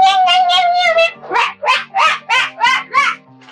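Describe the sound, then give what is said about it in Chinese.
A human voice mimics animals: first a drawn-out, wavering cat-like meow, then a quick run of about six loud, high-pitched dog-style barks in a steady rhythm. “两只狗狗，两只猫猫还不肯下来呢， 怎么办呢？”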